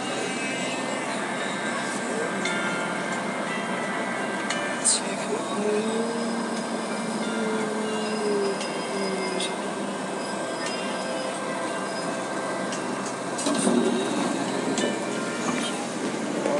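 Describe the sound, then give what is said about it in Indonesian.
A commuter train pulls into Lenteng Agung station: a steady rumble with a thin electric whine, occasional metallic clicks and a brief rising squeal near the end. “Oke, okay, sekarang udah sampai di stasiun Lenteng Agung dan seperti yang gua sudah prediksikan suasananya memang sudah lumayan sepi di sini hanya beberapa penumpang yang turun”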